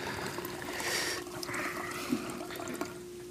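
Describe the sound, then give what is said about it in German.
Water pours into a glass at night in a steady trickle and splash for a few seconds, with a faint low hum underneath and a couple of small clinks near the end. “Ah, ich brauche nur ein Glas Wasser.”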